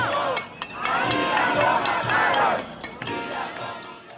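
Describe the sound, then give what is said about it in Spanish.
A large protest crowd of women, Indigenous, Afro-descendant and young people shouts and chants together in the street, many overlapping voices rising and swelling in loud waves, dense with no single speaker standing out. “Millones de voces obstinadas.”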